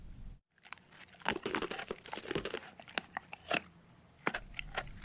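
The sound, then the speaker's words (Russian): A dog noisily chews and crunches a whole chunk of ice taken from a boy's palm, with a rapid series of sharp, crackling bites and grinding breaks that come in uneven bursts, no voices present. “Затем собака слезнула лед целиком и с шумом его переживала.”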